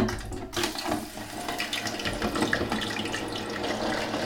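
Steady, loud bubbling and crackling of chicken frying in hot oil in a deep fryer, a half-filled basket lowered in, a dense continuous sizzle with fizzy pops throughout, without speech.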